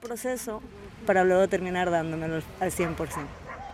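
A female dog gives a few quick yips, then a long drawn-out whine, followed by more short barking whimpers, loud with no one talking.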